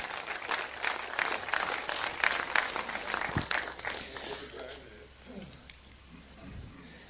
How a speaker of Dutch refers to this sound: geef hem een warm applaus, jongens. Het is echt top.